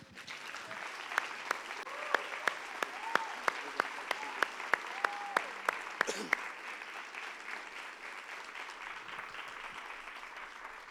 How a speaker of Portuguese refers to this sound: Acho que em primeiro lugar eu gostaria que você desse uma, uma linda salva de palmas ao Espírito Santo.